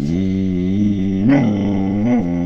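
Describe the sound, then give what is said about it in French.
A guide dog named Pompidou gives a drawn-out, low grumbling vocalization, fairly loud, holding steady before rising twice in pitch like a grumbling complaint, with no one talking. “Ah bon la réunion des anciens chiens d'aveugle, encore Bon, ok, c'est comme tu veux.”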